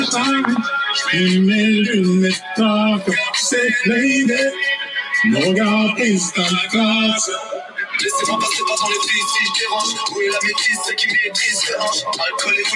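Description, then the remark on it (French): A rap song plays from a phone: a rhythmic rapped vocal rides over a steady beat, loud throughout, with the backing turning fuller and brighter in the second half. “je voulais en parler au-delà du fait que l'extrait est tue. Je sais pas si vous avez écouté l'extrait.”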